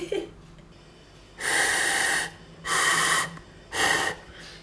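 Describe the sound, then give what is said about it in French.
Three long, breathy blows into a homemade transverse flute with finger holes for notes, each lasting under a second with short pauses between. Mostly rushing air, with only a faint hint of a pitched note underneath. “On entend un petit peu quand je souffle un changement de note, mais c'est pas ça non plus quoi.”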